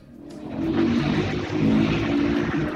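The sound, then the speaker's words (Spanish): A steady car engine drone with strong low harmonics rises over the first second, then holds loud, with no voices. “Se escuchó el ruido de un auto.”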